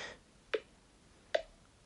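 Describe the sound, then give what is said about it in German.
Two short electronic feedback tones from a smartphone screen as the bottom of the screen is tapped and swiped up, evenly spaced about a second apart, soft, with quiet pauses in between and no talking. “Also, wenn man jetzt unten auf dem Bildschirm ähm, tippt, hört man eine, einen Ton.”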